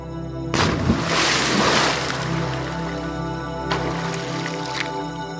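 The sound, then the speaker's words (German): A sudden, loud splash as a person takes a short run-up and jumps into warm water, followed by churning, gurgling movement and a few smaller splashes as the water settles, with no voices. “Entschlossen streifst du dir deine Schuhe und Kleider ab, nimmst ein wenig Anlauf und springst hinein.”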